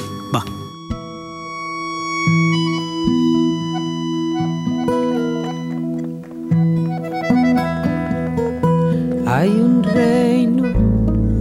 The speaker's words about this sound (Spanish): y que también tiene su manifestación en esta canción que vas a escuchar ahora, ¿eh?